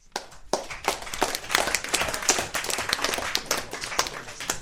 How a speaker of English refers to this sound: Well, anyway, thank you very much for asking our questions, and uh, yeah, round of applause.